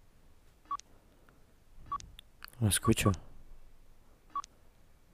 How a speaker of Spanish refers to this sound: ¿Puede escuchar ese bip? Escúchelo.